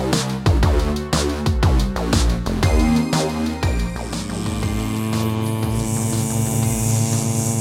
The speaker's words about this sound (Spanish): Oye, anda, apaga el vibrador que estamos eh, grabando.